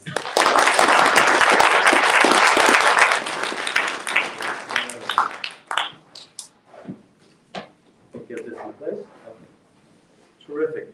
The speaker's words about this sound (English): So how about a round of applause for him?